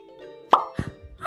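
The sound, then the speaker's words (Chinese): A bubble holding the character Little Pumpkin, one of many bubbles a fairy conjured, pops with one sharp, bright burst that rings briefly, then a softer, lower-pitched second pop follows. No one speaks. “泡泡破了，糟糕，小南瓜要掉下来了，那么高，会不会有危险呢？”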